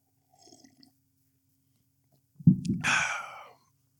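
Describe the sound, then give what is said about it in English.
A faint, soft slurp of someone sipping coffee, then a brief pause, a low gulping swallow and a breathy, satisfied exhale lasting about a second. No talking. “Let me drink some coffee. Coffee sip.”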